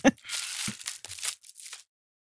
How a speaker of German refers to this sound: Eine knisternde Folie. Moment. Hört man das hier auch? Ja, ja. Also ich höre es ganz gut.